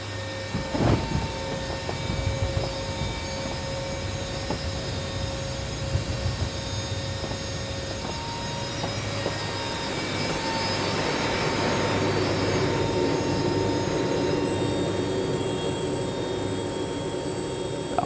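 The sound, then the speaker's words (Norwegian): A Hercules propeller transport plane rumbles steadily as it lands on an island airstrip at Jan Mayen on a clear day with calm winds. A sustained droning engine roar and high whining tones swell louder midway, with no one talking. “Herkulesen landet trygt på flystripa.”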